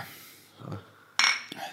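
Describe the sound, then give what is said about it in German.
Glasses clink together in a toast: a bright ringing clink followed a moment later by a lighter second tap, after some soft handling noise and no talking. “Erstmal Cheers. Ja, Prost.”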